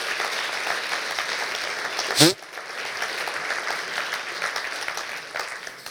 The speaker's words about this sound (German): Ich denke, wir wollen ganz kurz nur dem Lobpreisteam danken. Das ist so eine super Sache, die sie machen. Applaus